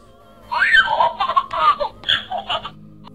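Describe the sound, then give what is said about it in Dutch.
A Baby Yoda electronic talking toy babbles in a high, giggly, childlike voice, a quick run of chirpy syllables and laughs lasting about two seconds with brief pauses between bursts. “Ik roep, baby Yoda wil je koffie? En dan begint hij te praten.”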